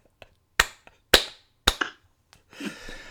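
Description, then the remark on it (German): A few sharp hand claps, loud and irregular, with three strong claps and some lighter ones, followed by a brief noisy rustle at the end; people clapping just for fun after a count of one, two, three. “Komm, wir klatschen einfach mal aus Spaß.”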